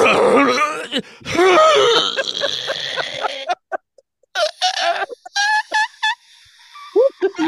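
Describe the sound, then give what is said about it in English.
A person imitates a zebra being eaten by a lion, with strained, groaning cries and wheezy bursts like air escaping, loud, followed by a string of short choked squeals separated by brief pauses. “but a uh, zebra eaten by a lion?”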